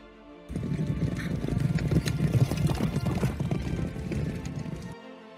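Horse hooves gallop at full speed in a fast, steady rhythm for several seconds, loud, with a brief snort or whinny mixed in, then stop abruptly.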